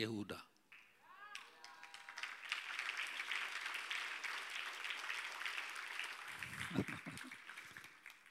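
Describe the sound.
An audience breaks into sustained applause, a dense, steady wash of many hands clapping for several seconds after a brief voice at the start, with a few louder claps near the end.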